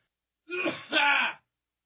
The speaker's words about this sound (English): clearing my throat. That's all right. See, now I'm doing it. Now I'm doing like a sympathy throat thing over here.